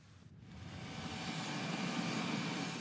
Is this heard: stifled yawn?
no